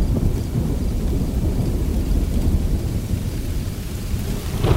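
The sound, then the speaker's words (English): A thunderstorm rolls on with deep, continuous rumbling thunder over a steady wash of falling rain, loud and unbroken throughout, with no voices present. “I would spent all my academic career studying plants, collecting in the field, been through so many experiences outdoors, but that was the first time that I had actually listened to a thunderstorm.”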